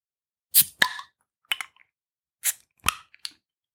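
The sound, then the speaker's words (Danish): A bottle of Czech beer being opened: a quick series of sharp metallic clicks and pops as the cap is worked loose, with no voices. “vi skal have fat i en tjekkisk øl i dag, men jeg synes da lige, vi skal prøve at åbne den, inden jeg taler videre.”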